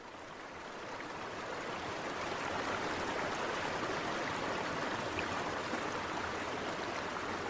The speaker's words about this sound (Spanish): Así se escucha el responsable del masivo contagio, el río Amazonas, la afluente que ha conectado diversas tribus y ha permitido el comercio a lo largo de los años entre los tres países.